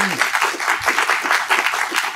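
A crowd breaks into steady, dense applause for a colleague of 25 years, many hands clapping at an even loudness throughout, with a brief trace of a voice at the very start.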